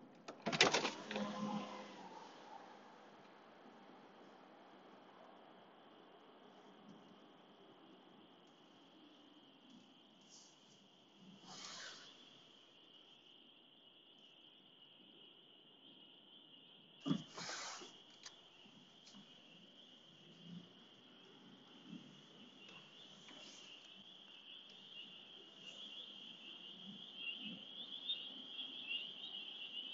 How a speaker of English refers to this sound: I feel like the world could do with a little bit of relaxation or just something that might make you feel nostalgic, something like a warm summer evening with a little bit of a breeze in the air. I'm going to roll my windows down and let you listen.